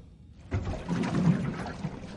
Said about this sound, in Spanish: En un pasillo se sirve un vaso de agua de un dispensador y bebe de un trago.